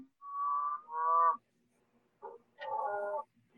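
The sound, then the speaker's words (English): Cattle, including cows, bulls and a steer, moo from a nearby field as the herd leaves it, two drawn-out calls back to back, then a brief pause, a short low grunt and another longer moo. Clear and moderately loud, with no talking. “There's cows. There's bulls. There's a steer.”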